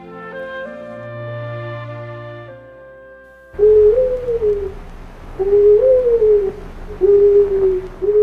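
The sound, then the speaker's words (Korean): A person imitates an owl outside a house at night as a signal, giving three loud hooting calls with slight pauses between them, following a few seconds of soft, sustained musical tones. “오빠가 집 앞에 와서 부엉이 소리를 내면 제가 알아듣고 나올게요.”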